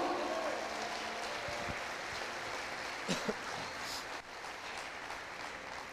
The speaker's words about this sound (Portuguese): Alguém pode aplaudi-lo aqui dentro e glorificá-lo?